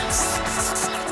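A death's-head hawkmoth squeaks in a quick run of about five shrill, high-pitched chirps, steady, with no voices present, recorded via a tiny 0.2-gram transmitter.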